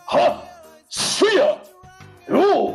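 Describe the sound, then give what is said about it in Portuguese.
A voice imitates the screams heard in a soundtrack: three loud, strained yells, each swooping up and back down in pitch with a breathy edge, separated by brief pauses. “E é curioso que na, na trilha sonora, especificamente, de vez em quando você ouve uns. É uns gritos assim no meio da coisa que é.”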